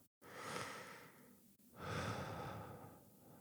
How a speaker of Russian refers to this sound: Вы, например, замечаете, что вы сейчас дышите? Вдох, выдох.